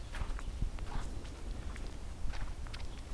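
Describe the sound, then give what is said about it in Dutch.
Footsteps on a forest path, a steady walking rhythm of soft crunching steps, with low rustling between each footfall and no voices. “samen lopen jullie verder.”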